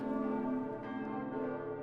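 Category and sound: signal or alarm, church bells ringing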